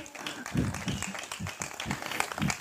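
A brief patter of applause for a colleague, a small group clapping in a dense, steady wash with a few heavier low thumps mixed in, lasting only a couple of seconds.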